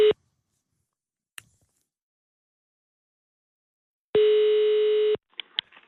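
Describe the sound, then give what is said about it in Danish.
An outgoing call's ringback tone, placed from a radio show in Copenhagen: one steady, buzzy beep about a second long, after the tail of an earlier beep and a faint click, then a couple of clicks as the line picks up. “Jeg tror, vi ringer til en fugl, der skal på arbejde.”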